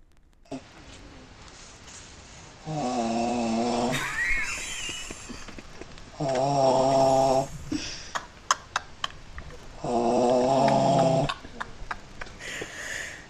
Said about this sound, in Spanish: Es un audio de lo que, de lo que acontecía mientras que nosotros intentábamos pillar el sueño. ¿Vale? O sea, Entonces, me vas a poner un ronquido. No lo sé, te lo pongo. Dura 15 segundos, pero disfrútalo.